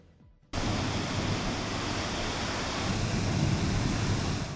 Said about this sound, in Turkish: Fırtına feribot seferlerini engelledi.